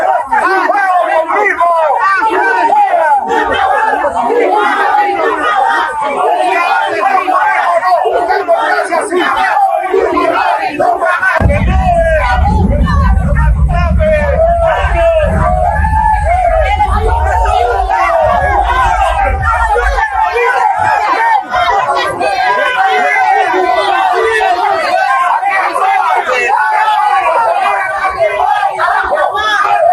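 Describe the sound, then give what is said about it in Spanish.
A loud, agitated crowd of Peruvian migrants shouts and chants in a small scuffle outside the Hotel Mayflower in Washington, where President Castillo is staying. Some carry Peruvian flags and call 'fuera Castillo'. A constant roar of overlapping voices, with a heavy low rumble surging in for several seconds midway before fading back into the clamor. “Luego de terminar la reunión, el presidente Castillo se dirigió a Washington, está hospedado en el Hotel Mayflower y en la puerta del hotel se armó también una pequeña gresca, veamos.”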